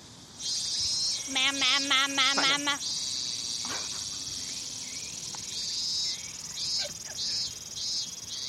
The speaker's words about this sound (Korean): 자, 그러면은 여기서도 비교 네. 들어갈게요. 방송국 매미 소리 한번 들어볼게요.